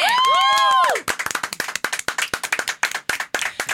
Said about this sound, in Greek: Ευχαριστούμε πάρα πολύ. Χειροκροτήστε με λίγο, παιδιά.